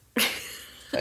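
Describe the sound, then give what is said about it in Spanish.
A sudden sneeze bursts out with a breathy, hissing release that fades over a moment, and a second sharp burst starts right at the end. “Salud.”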